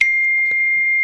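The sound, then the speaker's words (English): A single bright electronic notification chime from a computer rings out clearly and holds as a steady, sustained tone for about a second, with faint background noise and no voices. “That's my phone. That's that's my computer.”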